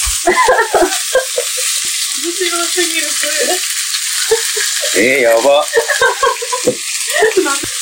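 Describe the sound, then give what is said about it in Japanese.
Steady, loud frying sizzle of frog legs in hot oil, a continuous bright crackling hiss running throughout while people talk and exclaim over it. “いきまーす。いけ。あ、いい音。”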